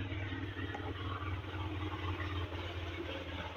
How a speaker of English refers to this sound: I'm sorry, but when people when people ride motorcycles and and drive vehicles that sound like this, I agree with the guys from South Park, and i tell you why.